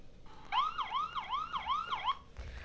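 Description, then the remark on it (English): An ambulance siren wails in a rapid, repeating up-and-down yelp, about five quick sweeps, clear before cutting off abruptly, as the ambulance pulls up. “A few minutes later, the ambulance pulled up.”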